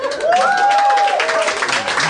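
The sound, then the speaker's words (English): An audience at a live Harmontown show claps in a dense, steady patter for about two seconds, with a long sustained vocal tone or whistle sliding over the noise. “We're, we're, we're in that third quadrant where you tell people not to clap.”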